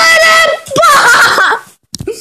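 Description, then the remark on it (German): Loud, shrill screaming bursts out after a count of three and holds for under two seconds with a wavering pitch, then breaks off into a short silence followed by a few faint vocal sounds. “ich bekomme jetzt Copyright vom Schreien.”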